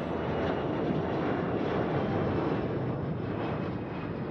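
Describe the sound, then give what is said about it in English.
A loud, steady airplane engine drone fills the whole stretch, a dense, rumbling roar that holds constant without breaks, as the plane circles the airport at Mendoza, Argentina. “So, nobody really knew what to expect, but from the time the plane started to circle the airport, we knew it was going to be something special.”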